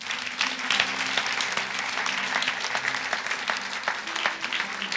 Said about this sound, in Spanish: Eso, eso merita un aplauso al Señor.